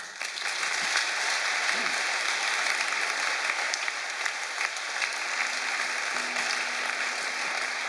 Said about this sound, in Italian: Facciamo un applauso al Re.